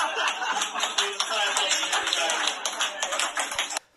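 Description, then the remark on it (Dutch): A crowd applauds for the group dubbed the 'Willem Engeljugend' standing on stage, steadily for about four seconds, a dense, loud wash of many overlapping hand claps that holds even and then stops abruptly. “Dus mag alsjeblieft een applaus voor de Willem Engeljugend die hier staat.”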